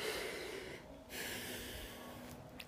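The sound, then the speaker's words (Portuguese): A slow, deliberate deep breath, taken while paying attention to breathing: a breathy, airy intake, a brief pause, then a long, steady exhale through the nose, with no talking. “respirar, prestar atenção na minha respiração”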